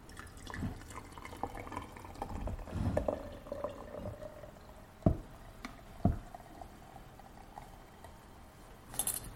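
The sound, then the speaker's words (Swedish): Hot water pours over tea leaves in a pot in a steady trickle, followed by a few sharp clinks as the lid is put on the pot. No one speaks. “Så då häller jag väl på vatten här då?”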